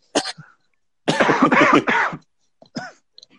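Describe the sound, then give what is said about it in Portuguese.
A harsh coughing fit: one sharp cough, then a rapid string of rough hacking coughs lasting about a second, ending with a final throaty cough. No talking. “A tosse Começou? que você tentou esconder.”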